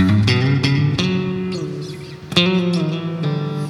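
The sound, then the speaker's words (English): Notes played one after another on a Strat electric guitar, each ringing out into a washy, lingering reverb tail that blurs into the next note; fairly loud, with no talking. “So we got a. Got a good amount of reverb on there.”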